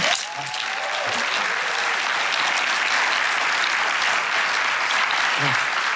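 Steady, sustained applause from an audience welcoming a speaker fills the whole stretch, a dense wash of clapping at an even loudness with faint voices and cheers mixed in.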